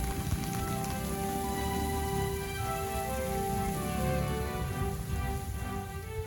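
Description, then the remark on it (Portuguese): Steady splashing water from the sound-and-light fountain in Praça Barão do Rio Branco in central Bebedouro at night, a dense continuous patter like heavy rain, with faint tonal hum and the ambient murmur of nightlife around the fountain in the square. “essa mistura de sons lhe é familiar. A vida noturna acontecendo ao redor da fonte sonoro-luminosa Gazeta de Bebedouro”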